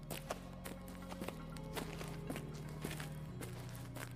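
Soft footsteps echo at a steady walking pace, roughly every half second, over a low sustained drone, with faint reverberant taps trailing each step.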